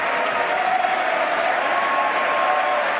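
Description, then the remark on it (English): Sustained, dense applause from a large crowd on one side of a legislative chamber, with that side standing, steady and loud throughout with no pauses, the many claps blending into a continuous wash of sound. “Wow, listen to that. They're really the one side standing, one side's not.”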